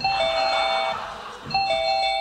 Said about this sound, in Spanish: Porque un día sonó el timbre de la mansión de los días.